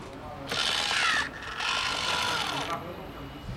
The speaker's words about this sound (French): Bonjour. Alors, un peu de gel hydroalcoolique.